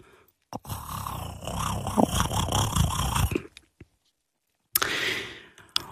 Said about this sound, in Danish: Han siger også, at andre elementer, nu citerer jeg, så som hulrummet i kattens strobehoved, det såkaldte resonansrum og kattens tungeben er formodentlig også med til at skabe den rumlende lyd.